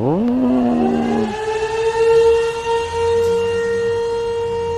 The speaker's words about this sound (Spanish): pero anunciaba la salida y la entrada de los obreros de Alfa una sirena.